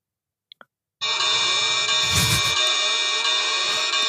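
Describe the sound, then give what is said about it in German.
A couple of soft clicks, then a loud, steady electronic alarm tone rings continuously for about three seconds, bright and buzzy with no pauses, heard alone; it is the alarm clock sound a neighbour living opposite uses. “Und zwar benutze das Ganze anscheinend als Wecker.”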